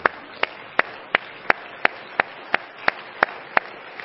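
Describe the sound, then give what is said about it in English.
An audience claps hands unto the Lord after a prayer, in a steady, even rhythm of about three sharp claps per second, fairly loud, with no voices over it. “And everybody said in Jesus' name, Let's clap our hands unto the Lord, everybody.”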